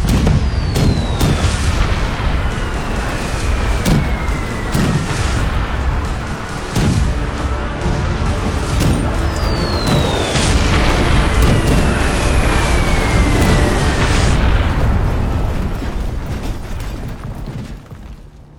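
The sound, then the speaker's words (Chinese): A loud, sustained wartime bombardment of deep booms and blasts over a constant rumble, with two long descending whistles of incoming shells, before the din fades out at the end. “他出生的那一刻，砰！大战爆发。”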